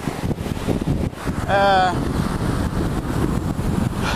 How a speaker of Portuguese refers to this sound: Eu vou andando, tá? Vou passando comigo na praia. Diferença é que eu vou manter o celular aqui na frente para segurar o vento. Pra ver se eu consigo falar.